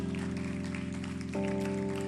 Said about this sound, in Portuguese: Aplauda Ele mais forte. Aplauda Ele mais forte. Aplauda Ele mais forte. Aplauda mais, aplauda mais, não para não. Nós aplaudimos, Senhor.